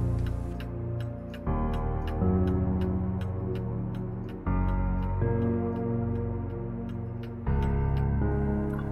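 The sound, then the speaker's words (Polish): A clock ticks steadily while deep, resonant chimes strike midnight one after another, each tone ringing out long and overlapping the next, loud with no voices. “A kiedy usłyszeli, jak zegar wybija północ, duch rozpłynął się w nicości, zostawiając samotnego Scrooge'a.”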